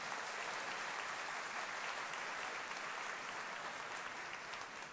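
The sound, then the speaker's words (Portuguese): An audience applauds steadily for the full stretch, a dense, continuous wash of many hands clapping at an even loudness with no speech over it. “Agora eu quero palmas, né, gente? Por tudo isso merece palmas.”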